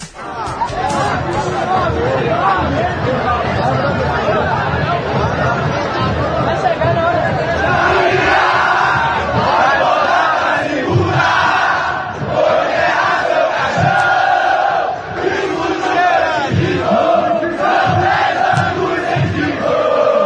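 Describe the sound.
A large crowd of Vitória football supporters chants a song in unison about burying Bahia's coffin, loud and continuous, the massed voices rising and falling in a steady rhythm with occasional sharp bangs mixed in.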